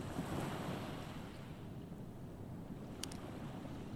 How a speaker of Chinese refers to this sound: 你可以听到海浪轻轻的拍打着沙滩。